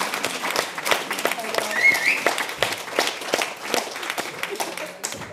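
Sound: audience applause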